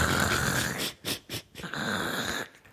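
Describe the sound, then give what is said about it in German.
A voice makes a rough, rasping growl, imitating the grinding scrape of stones being dragged by a security guard in catacombs: a long sustained rasp, two short bursts, then another drawn-out scrape, fairly loud. “Und wir waren halt da unterwegs, dann, also in diesen Katakomben, da hörst du halt die ganze Zeit so krrr, äh?”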